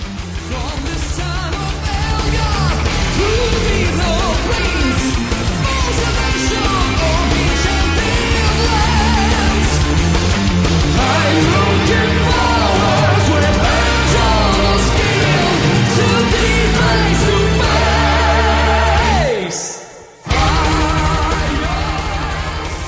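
Loud, dense melodic metal plays continuously, with driving drums, distorted guitars and soaring sung vocals, cutting out briefly near the end before crashing back in.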